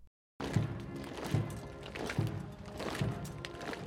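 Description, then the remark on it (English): A rehearsal procession for the late Queen's funeral on Monday, held in Windsor in the dark early hours of Saturday morning: slow, evenly spaced heavy thuds, like measured marching steps or a muffled drum, keep a steady beat over a constant wash of outdoor noise. “The sound of the rehearsal procession in preparation for Her Late Majesty's funeral on Monday.”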